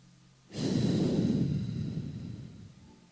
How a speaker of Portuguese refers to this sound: Respira pela metade agora, vai. Não é ruim? Deus não te quer respirando pela metade. Agora respira como Jonas respirou quando saiu da baleia ou do peixe. Respira.